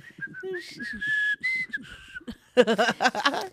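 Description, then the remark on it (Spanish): A casual, tuneful whistle carries a short melody of sustained and gliding notes, moderately loud, then breaks off as a person starts talking and laughing. “güey, chiflando las tres.”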